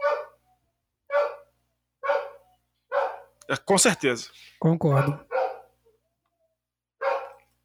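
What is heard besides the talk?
dog barking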